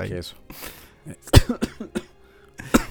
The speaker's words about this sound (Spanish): Perdón, sigo con tos.